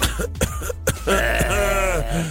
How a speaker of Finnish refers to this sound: on varmaan vähän köhää tällä hetkellä.